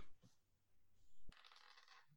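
A soft thud followed by the faint, rapid clatter of dice tumbling across a surface for under a second, quiet, with no one talking.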